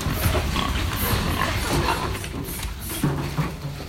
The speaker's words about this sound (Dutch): En er zitten dus 12 varkens in één hok. Die hebben 0,8 eh, meter per stuk.